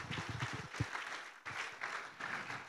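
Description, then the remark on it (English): A crowd applauds steadily, a dense rush of many hands clapping at once that holds for the whole stretch, with a few brief low murmurs of voices underneath. “Come on, you can clap.”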